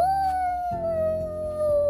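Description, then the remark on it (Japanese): A person mimics a wolf howl with one long, loud sustained note that slowly slides downward in pitch, held for a couple of seconds against a busy background. “そのやつを狼であったのでやってみてすごいシーンが出てきました”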